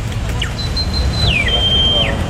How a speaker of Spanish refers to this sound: Más pajaritos. Son pajaritos de plástico. Pájaros de plástico y, y pollos de goma.